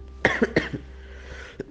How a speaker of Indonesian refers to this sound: Mohon maaf ya, saya nge-record ini dalam kondisi masih batuk. batuk kering jadi gatal banget.